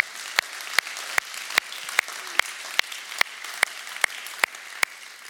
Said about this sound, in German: Hey, vielleicht können wir einfach mal allen Leuten einen riesen Applaus geben. Leute, echt ehren.